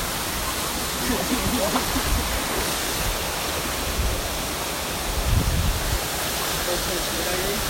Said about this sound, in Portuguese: dentro da cachoeira escorrega mesmo.